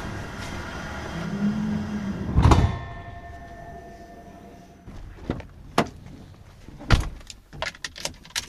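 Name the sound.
getting into a car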